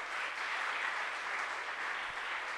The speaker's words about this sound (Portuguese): Fique de pé no seu lugar e vamos aplaudir a Jesus.